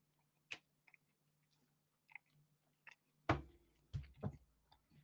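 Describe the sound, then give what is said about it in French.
Crunchy chewing with irregular bites and clicks, growing louder and denser toward the end, with no talking. “Je mâche.”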